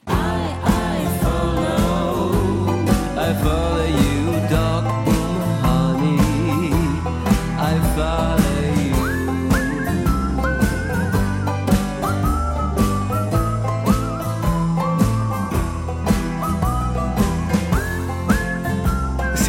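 A whistled melody rides over a full, steady band arrangement with drums and bass, the tune weaving clearly through the mix for the whole stretch without any voices.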